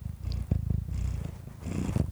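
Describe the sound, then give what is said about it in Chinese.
A cat purrs loudly and steadily, a deep rumbling drone with a rapid fluttering pulse that swells and eases with each breath, heard on its own with no talking. “给大家听听看你呼噜声有多大声。”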